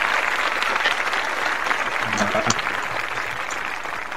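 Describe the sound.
Sustained applause from a crowd, a dense, steady patter of many hands clapping at once for several seconds, fairly close and loud, with faint voices mixed in.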